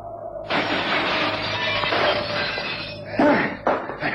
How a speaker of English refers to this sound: There's only one way, Watson. I'm going to simply jump through the glass. Follow me as quickly as you can.